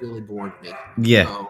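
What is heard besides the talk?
dog barking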